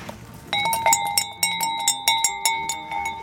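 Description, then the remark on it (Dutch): A sheep's neck bell, worn by Tommy, a castrated ram, clanks repeatedly in an uneven rhythm, about a dozen metallic strikes with ringing tones, clear with no talking. “Waarom draagt Tommy zo'n bel?”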